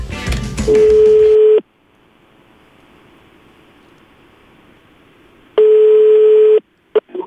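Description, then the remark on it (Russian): Rapid telephone keypad beeps, dialing the number from an advertisement to call about a sofa for sale, give way to a steady ringback tone that sounds twice, each a long buzz at a fixed pitch separated by a faint quiet line hiss, then a short click. “Набирайте, …, номер вот, пожалуйста. Набираю.”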